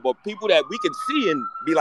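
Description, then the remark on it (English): A steady, high ambulance siren tone holds under people talking, not rising or falling much across its short span. “That's the that's the that's the ambulance taking Julius Randle mid-season because Thibs want to play him 45 minutes a game.”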